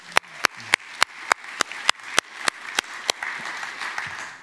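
Sharp, evenly spaced claps ring out steadily for about three seconds, then loosen into a softer, scattered wash of audience applause for a team member, the scripture reader.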